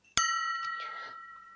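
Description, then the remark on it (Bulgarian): Glasses clink together once in a toast, a sharp bright strike followed by a clear ringing tone that slowly fades, with a faint second tap shortly after and no talking. “И ам, мисля, че може да си кажем едно финално на здраве.”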